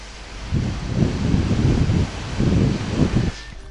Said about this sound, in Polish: I to przypomina powiew wiatru nadmorskiego w Sopocie, ale to nie jest żaden wiatr, ani to nie jest żaden Sopot, tylko to jest wkurzające brzęczenie mojego laptopa.